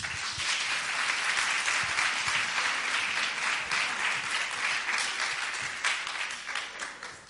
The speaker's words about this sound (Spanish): Así que ahora les pido a ustedes, señoras, que aplaudan a los hombres.